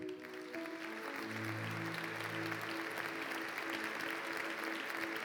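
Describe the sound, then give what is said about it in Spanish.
An audience breaks into steady, dense applause for the leaders of the prayer hour, holding for several seconds, with sustained keyboard or organ notes playing softly underneath the clapping. “Y vamos a darles un aplauso.”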